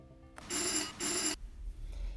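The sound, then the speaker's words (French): The entrance bell of a cobbler's workshop-shop in Suresnes, France, rung at least 140 times a day on busy days, rings sharply in two quick bright bursts, then stops, leaving a low background rumble with no one speaking. “Cette sonnette, il l'entend au minimum 140 fois par jour les journées d'affluence, et ce depuis 37 ans.”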